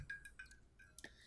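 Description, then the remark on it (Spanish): Wine glasses clink together in a toast, with about four light, ringing taps over a second or so, each leaving a brief bright chime. The clinks are soft, with no talking. “Bueno, salud. Salud.”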